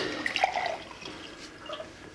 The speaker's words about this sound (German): Darf ich Ihnen ein Glas Wasser einschenken? Ja, gerne.